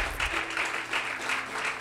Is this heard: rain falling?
no